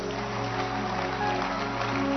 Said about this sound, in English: Clap your hands again unto the Lord. Give it to Jesus.